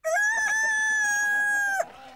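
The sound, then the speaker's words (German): A rooster crows once, loud, a long drawn-out call held steady for nearly two seconds before cutting off, with no voices around it; chickens kept in a family garden. “Wir hatten Schweine und Hühner.”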